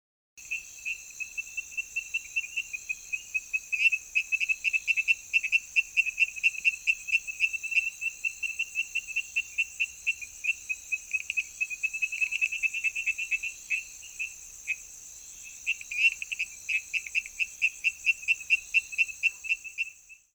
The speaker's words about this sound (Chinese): 面天树蛙的叫声哦，很不规律，但是声音很清脆、很悦耳，我是觉得蛮好听的啦。那你也来听听看，评定一下它的声音好不好听吧。